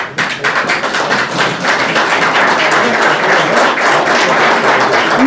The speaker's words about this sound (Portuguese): Figuras como Bia Kisses, Marquinhos da Inteligência, Marcos Feliciano e Nicolas Ferreira aplaudiram o general.